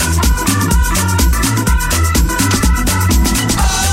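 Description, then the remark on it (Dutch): A Hammond organ plays in a full band track, sustained chords riding over a steady beat with bass and drums, loud, no voices. “Dat klinkt zo lekker hè, zo'n Hammond.”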